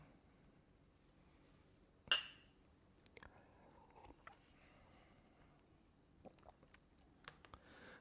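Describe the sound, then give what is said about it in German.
Two drinking glasses clink together once in a toast, a bright ringing tap, followed by quieter scattered taps and handling noises. “Lass uns nochmal anstoßen.”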